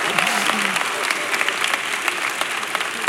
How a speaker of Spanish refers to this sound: Un favor, un favor para los de esta zona, cuando los demás aplaudan, intégrense. Hagan, hagan paro.